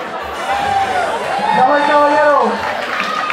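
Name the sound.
crowd chatter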